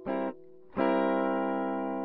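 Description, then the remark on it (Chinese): Music plays from a wooden guitar standing in the corner: a bright, ringing note cuts off after a moment, a softer lower tone briefly hums, then a loud, harmonically rich chord swells in and sustains steadily. “音乐声不断从吉他中传出来”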